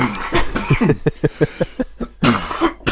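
A loud fit of coughing from a person with a cold: a rapid series of short, harsh coughs in a rhythmic burst, followed by a couple more forceful hacks near the end.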